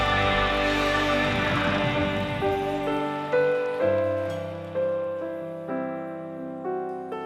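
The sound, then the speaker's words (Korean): An audience's dense, crackling applause, offered to the Lord in thanks and glory during worship, fills the first few seconds over sustained keyboard chords, then dies away, leaving the chords to continue alone with new notes entering at a slow, steady pace. “주님께 우리 감사의 박수, 영광의 박수 올려드립니다.”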